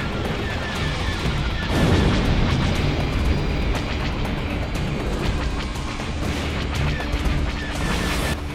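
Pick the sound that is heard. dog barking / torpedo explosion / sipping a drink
torpedo explosion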